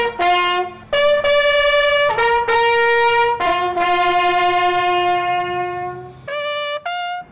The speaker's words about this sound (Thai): พลสัญญาณแตรเดี่ยว เป็นสัญญาณว่า พระอาทิตย์กำลังจะตกแล้ว ทหารเรือคนใดที่ยังทำงานข้างค้าง ให้รีบทำให้เสร็จ ก่อนที่อีกไม่กี่นาที แสงอาทิตย์ก็จะเลือนลับไปค่ะ